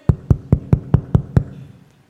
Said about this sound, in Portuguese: Alguém bate na porta. Rápido! Sai daí! Eu consigo identificar pela batida na porta exatamente a pessoa da minha família que está batendo.